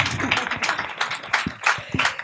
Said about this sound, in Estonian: suur aitäh, teeme ühe aplausi veel, sest me ma... peame minema edasi